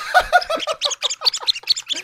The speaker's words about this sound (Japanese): これ多分キョロちゃんホイッスルおえー、っとキャラメル普通のいちごのが3つ並んだ形のホイッスルな